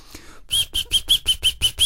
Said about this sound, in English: He opened the box. Immediately the nightingale started to sing as if all the music in the world was bursting from its throat.